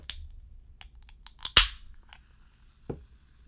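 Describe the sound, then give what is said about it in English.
A can of Coke Zero is cracked open: a few small metallic clicks lead to a sharp pop and a short fizzing hiss, followed by one soft knock. No one speaks. “I, am going to open my uh, Coke Zero, so I'll do a quick Coke okay. Zero solo.”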